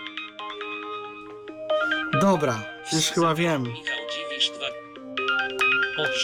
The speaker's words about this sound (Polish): A widzisz, teraz jest dzwonek. No tak a przedtem nie było.